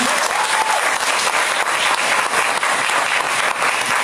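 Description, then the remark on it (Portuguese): A church audience claps steadily and loudly for several seconds in praise of the Lord, a dense, continuous wash of many hands applauding together with no voices standing out. “E quem está aí, peri, peri, peri, hiper feliz, dá um salva de palmas ao Senhor.”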